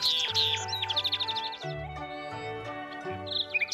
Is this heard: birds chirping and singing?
yes